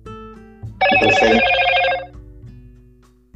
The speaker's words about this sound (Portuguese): Hum, acho que seu telefone tocou aí, né?